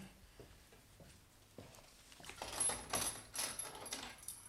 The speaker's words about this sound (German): tu mir den Gefallen und schließ die Tür ab. Wir wollen ja. ganz ungestört sein.